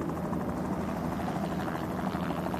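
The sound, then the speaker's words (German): Rotors of two helicopters hovering overhead at the Rakiot face at 8 a.m. thud in a steady, rapid rattle from a distance, buffeted by strong wind, a continuous low drone with a dense pulsing texture and no voices. “Über ihnen schweben zwei Helikopter.”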